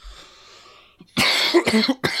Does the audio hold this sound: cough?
yes